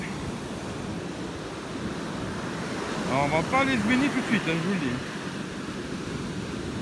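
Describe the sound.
Steady roaring surf from large ocean waves, a broad wash of noise throughout, with a man speaking briefly over it in the middle.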